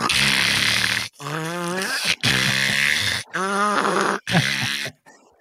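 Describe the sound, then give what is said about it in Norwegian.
A voice imitates labored, snorting breathing like a French bulldog, with four loud, raspy wheezing bursts separated by brief pauses, harsh. “Altså, ser du en gjennomsnittlig fransk bulldog i dag, så er det sånn”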